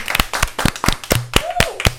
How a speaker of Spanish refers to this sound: Denos un aplauso, desen un aplauso más bien, perdón.